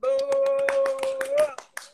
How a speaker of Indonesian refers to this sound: Tepuk tangan dulu.